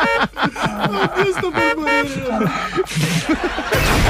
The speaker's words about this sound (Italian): Con il clacson di una macchina?